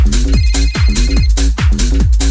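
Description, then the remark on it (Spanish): A loud, repeating electronic ringtone-style beeping melody, like an old mobile phone, playing over a thumping dance beat with steady kick drums and no voices. “Fíjate, en aquella época o te sonaba así el teléfono o quizás un SMS, como mucho.”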